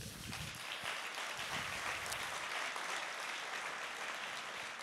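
A crowd breaks into steady, sustained applause, a dense wash of many hands clapping at once with no voices standing out, holding at an even, moderate loudness throughout. The applause welcomes a man who is being baptised today.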